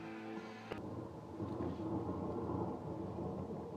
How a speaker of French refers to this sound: Ben, c'est le tonnerre, ça.